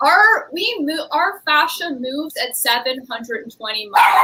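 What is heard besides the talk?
dog barking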